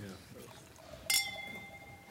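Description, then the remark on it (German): A single bright clink of wine glasses touching in a toast at a wine tasting, followed by a clear ringing tone that lingers and slowly fades, with faint voices murmuring in the background. “Don't click.”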